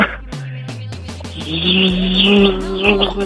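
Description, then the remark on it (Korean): A voice imitates a cicada as the answer to a weekend quiz on the Korean radio show Park Myung-soo's Radio Show, starting with short rhythmic pulses and swelling into a sustained, raspy buzzing drone that wavers in pitch, loud. “자, 여러분께 내드렸던 예, 주말의 퀴즈 정답은요. 바로 매미였습니다.”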